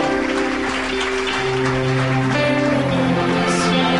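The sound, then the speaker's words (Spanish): A church audience applauds the people who came running to the front, in a steady, dense patter for several seconds, mixed with sustained keyboard chords and held musical tones underneath; no one speaks. “Y la iglesia les aplaude, la iglesia les aplaude.”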